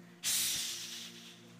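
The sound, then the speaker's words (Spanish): A voice imitates a snake's hiss, voicing the serpent of the Adam and Eve story, with one sharp, breathy sustained "ssss" that starts abruptly, stays loud, then gradually fades for over a second. “Ayúdeme. Ahí viene la serpiente.”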